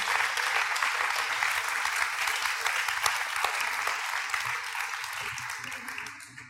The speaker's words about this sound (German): Dürfen wir einen Applaus geben?